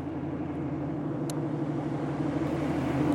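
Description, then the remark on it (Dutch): A Wehrmacht military truck engine rumbles low and steady, idling with a deep, even drone that barely changes throughout, with no voices, as it stops at a city villa on the corner of Apollolaan and Beethovenstraat at 4 a.m. on Tuesday 24 October 1944. “Een vrachtwagen van de Weermacht stopt bij een stadsvilla.”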